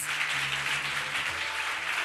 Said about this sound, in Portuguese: Deu uma salva de palmas ao Senhor, amados.